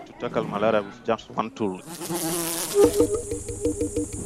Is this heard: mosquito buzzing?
yes